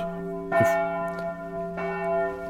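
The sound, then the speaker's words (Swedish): A racecourse bell, rung for the final stretch of a race, rings out clearly, struck twice about a second apart, each strike blooming into a long, sustained metallic hum that carries steadily between the strokes, with no voices over it. “är det upploppsklockan vi hör? Eller? Ja. ja, det är upploppsklockan.”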